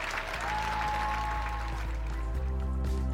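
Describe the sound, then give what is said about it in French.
Thunderous applause from a large audience, a dense, continuous wash of clapping that holds steady throughout, with faint sustained musical tones running underneath, as performers end a show by singing the Ukrainian national anthem with a yellow and blue flag on stage. “Drapeau jaune et bleu érigé sur scène, main sur le cœur, les artistes terminent la représentation en chantant l'hymne ukrainien sous un tonnerre d'applaudissements.”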